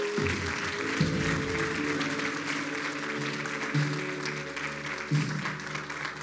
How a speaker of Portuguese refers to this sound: Se você acredita nisso, dê um aplauso ao Senhor nessa noite.